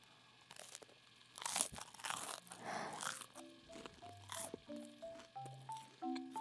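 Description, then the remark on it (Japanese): Crisp, loud crunches of someone biting into toast with tarako (cod roe) spread, with a burst of crackling bites followed by softer chewing and faint tonal hums underneath. “じゃあたらこですねたらこスプレッドこれ前ブカピで紹介したんだけどめちゃくちゃ美味しいからおすすめだよいただきます”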